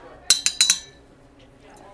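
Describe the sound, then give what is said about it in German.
Four quick, bright clinks of a cup against china ring out in a fast cluster as filter coffee is poured from a thermos jug, then fade into quiet with a faint tap at the end. “So, ich muss erstmal einen Kafka reingehen.”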